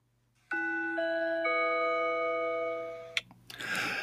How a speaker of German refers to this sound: So, das ist die Glocke für das Ende des eigentlichen äh, Themas.